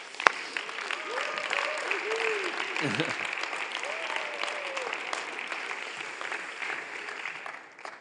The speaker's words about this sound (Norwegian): Så han må dere gi en skikkelig applaus opp.